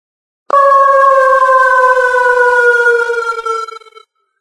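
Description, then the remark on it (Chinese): A wolf lets out one long, loud howl that holds a steady, slightly sinking pitch for about three and a half seconds before trailing off, with no other sounds around it. “狼仰头长嚎，法推似乎听懂了，这是狼群积极进攻的号令，而且那条狼自愿担任佯攻，负责吸引猎物的注意。”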